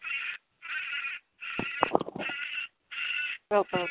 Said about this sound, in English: what is that noise? Oh, that's, that's a parrot. That's a parrot.